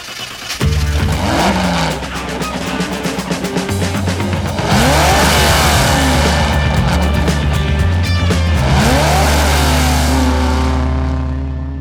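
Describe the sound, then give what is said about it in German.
A race car engine revs and accelerates in loud, sweeping surges that rise and fall, with a steady, punchy backing underneath and no voices. “Dem Rennauto, das, wenn es sprechen könnte, die wohl verrückteste Geschichte der automobilen Rennwelt erzählen würde.”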